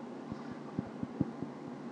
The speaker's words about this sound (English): Yep, that's a train.